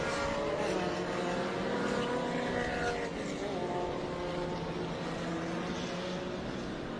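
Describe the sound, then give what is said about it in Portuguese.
Vanderlei Berlanda's race car roars steadily past on the track as he completes his lap in heavy rain, its pitch sliding as it goes by, with a constant loud mechanical drone and no voices. “Vai passando aí o Vanderlei Berlanda, completando sua volta também.”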